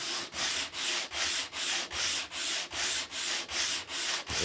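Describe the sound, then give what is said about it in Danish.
Coarse 80-grit sandpaper rasps back and forth across wood in steady, even strokes, about two per second, fairly loud with no talking. “Nu er korn 80. Jeg kan nemt høre forskel.”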